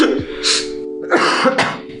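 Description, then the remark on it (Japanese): A person with a cold coughs in a few rough, throaty bursts, with a brief pause between them and a clearing-of-the-throat quality. “出てますね、咳が。”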